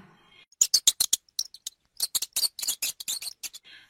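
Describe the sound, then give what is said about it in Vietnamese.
A rapid series of short, high-pitched squeaks from a mouse behind a dish cupboard chitters in irregular bursts, fairly loud, with brief pauses between clusters and no talking. “Nàng ta nghe đâu đấy có tiếng chuột chít thì phải”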